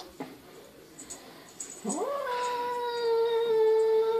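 A male cat lets out a long, loud, drawn-out yowl at his own reflection in a mirror; it rises at first and then holds steady for a couple of seconds, following a few faint taps.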